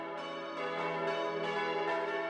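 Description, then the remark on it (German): The five bells of the Holy Trinity church in Hagelstadt, weighing two and a half tonnes and hung in a 43-metre copper-roofed tower, ring the midday peal together in a steady, overlapping peal, their rich metallic tones layering and sustaining continuously at moderate volume with no voices present. “Das Mittagsläuten aus Hagelstadt”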